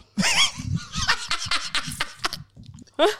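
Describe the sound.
A person imitates a clucking chicken, letting out a run of choppy, squawky clucks and then one last sharp cluck after a short pause.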